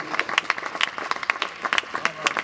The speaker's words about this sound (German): So, an dieser Stelle könnt ihr euch selber nochmal einen großen Applaus geben für einen erfolgreichen Kenset-Wettbewerb bis jetzt.